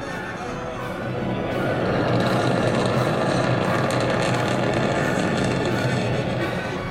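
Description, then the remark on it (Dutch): A rocket launching toward the moon roars in a dense, rumbling wall of noise, recorded nearby on a phone. It swells over the first two seconds, then holds steady and loud throughout. “Van 10 naar 0. En daar gaat hij.”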